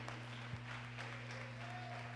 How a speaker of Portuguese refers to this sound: Nós te adoramos e aplaudimos o Teu nome como igreja.